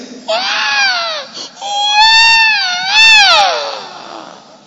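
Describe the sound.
A voice imitates the agonized wailing of afflicted, battered, broken people: two long, loud, quavering cries with a high pitch that bends up and down, broken by a short catch of breath, and no words spoken.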